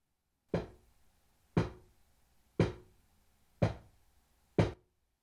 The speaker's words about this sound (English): The seance continued. If you are really a spirit of the dead, communicate with us by knocking five times.